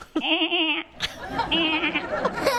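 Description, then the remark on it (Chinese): A person imitates a goat's bleat, one of ten animal sounds requested, giving a long, quavering, nasal 'baa' followed after a brief pause by a second, shorter wavering bleat, both fairly loud. “那个是羊吧哈， 羊”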